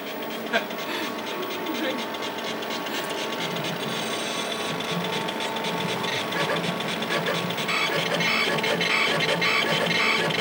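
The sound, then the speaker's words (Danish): An old computer, with a small loudspeaker wired into its CPU circuit, lists the files on its disk and sorts the names alphabetically. It gives off a continuous, harsh scraping chatter with steady whining tones, fairly loud, swelling slightly toward the end. “Den der knivlyd, man hører, det er en sortering.”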